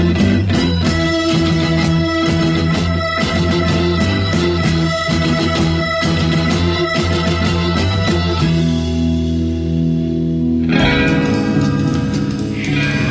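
Loud, dense rock music plays throughout with steady driving rhythm, sustained distorted guitar or organ tones, and a brief shift near the end as the arrangement changes; no voices are heard.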